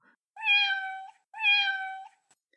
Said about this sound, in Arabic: وبقي ليث وكركوش ينظران إلى القطة الصغيرة وهي تموء